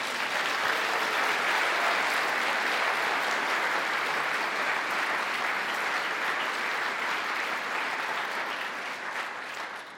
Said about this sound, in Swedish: Hon sitter där bak, hon syns aldrig. Hon tycker inte om att synas, men vi kan väl ändå bara ge henne en applåd så hon får känna det.